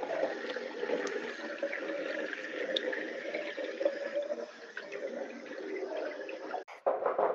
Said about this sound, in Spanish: Se escucha muy bonita el agua.